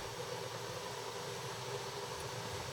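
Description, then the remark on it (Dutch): A steady, even rushing hiss of an electric kettle heating cold water from a jug for coffee, with a low rumble underneath, holding constant throughout with no voices. “We horen de koffiekoker.”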